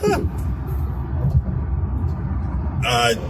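Loud, steady low rumble of busy freeway traffic as a speeding sheriff car goes by, with a brief sharp bright burst of noise near the end.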